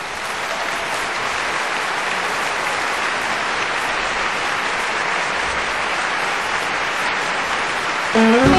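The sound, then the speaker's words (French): Sustained audience applause as Mireille Mathieu comes on stage, a dense, steady wash of many hands clapping at an even, loud level throughout, with a slight swell right at the end and no talking. “Bon, ben Mireille Mathieu et sa coupe de cheveux qui craint, sur scène, sous vos applaudissements.”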